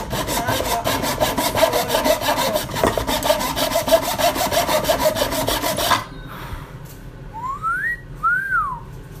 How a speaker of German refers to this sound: Ich bin immer ziemlich angespannt beim Sägen. Macht er auf Pausen? Damit der Sägung perfekt wird. Vor allem bei so langen Schnitten.